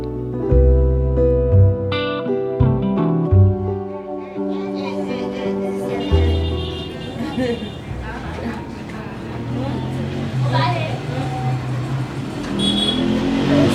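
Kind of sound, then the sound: vehicle, street traffic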